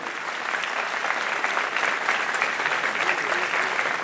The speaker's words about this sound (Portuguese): Aplauda ele aí. Aleluia.